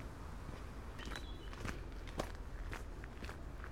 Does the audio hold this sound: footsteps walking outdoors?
yes